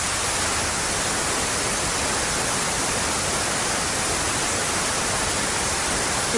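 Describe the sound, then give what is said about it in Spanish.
Steady, uniform hiss of white noise, like a detuned television, filling the whole clip at a constant level with no variation or breaks. No voices or other sounds. “tienen como el mismo peso y la misma potencia se percibe como un ruido pues muy monótono, constante, uniforme, pues, por poner algún ejemplo como el televisor desintonizado o un ventilador en funcionamiento.”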